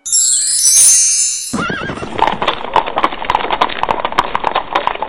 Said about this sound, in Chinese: 这时，一辆六匹白马拉着的金色马车飞驰而来，停在了台阶前。